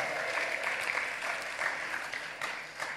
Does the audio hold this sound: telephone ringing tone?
no